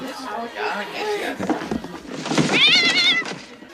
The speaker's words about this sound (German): Das Paket macht miau.